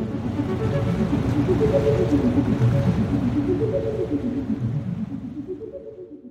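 A boat carrying Al to Ingjerdstrand in the inner Oslofjord, Norway, drones steadily on the water, a deep, rumbling hum with wavering tones that stays loud before easing off slightly at the end.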